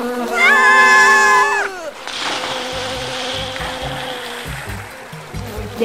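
A swarm of bees buzzes loudly in a steady, droning tone rich in overtones for a second or two, then drops away into a rushing wash of noise with soft low thumps.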